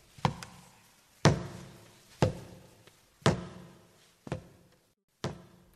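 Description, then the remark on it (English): A blind man's walking stick taps on a road, six sharp knocks at a slow, steady pace of about one per second, clear with no voices. “But then I heard the sound of the blind man's stick on the road.”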